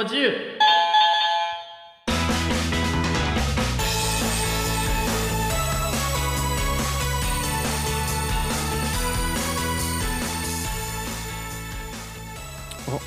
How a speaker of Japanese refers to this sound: 珍しくピンポン